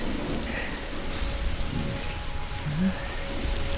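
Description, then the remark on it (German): Steady rain falls throughout, a dense, even hiss of drops pattering on a surface, moderately loud, with no voices. “Wenn es regnet, dann könnte das Feuer ja gar nicht brennen.”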